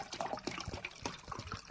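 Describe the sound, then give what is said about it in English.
Water glugs and splashes as it is emptied out of a bottle that was about a third full, a steady run of gurgling bursts with no voices. “And if I empty that out again,”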